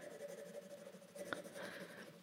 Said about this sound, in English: Indigo. Okay, so even over this really bright marker, once I start putting the pencil in, and again, it's a scribble